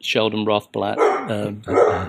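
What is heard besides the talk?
dog barking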